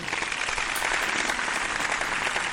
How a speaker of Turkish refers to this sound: İyi ki geldiniz. İyi ki buradaydınız. Çok teşekkür ediyorum size. En büyük alkışları öncelikle.